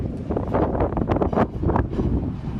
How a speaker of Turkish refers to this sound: Polatlı'da korkulu anlar yaşatan kum fırtınası Ankara merkezde ise toz bulutu olarak gökyüzünü kapladı.